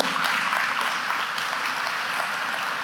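A crowd claps steadily for about three seconds, a dense, even wash of many hands with no voices standing out above it, applauding two young women who stand up and will leave for Camad in a few weeks.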